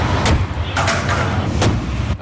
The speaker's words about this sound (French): À l'aide de pinces hydrauliques, les pompiers découpent le toit